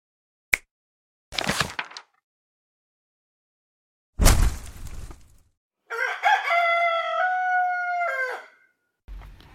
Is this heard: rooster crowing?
yes